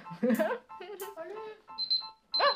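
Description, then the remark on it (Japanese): Electronic beeping, like an alarm, comes in short repeated bursts near the end, with a voice talking just before and partly over it. “じゃあまたピピピもうるさいし”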